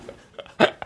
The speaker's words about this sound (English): Uh, I stopped and sneezed. I did. I did. I stopped.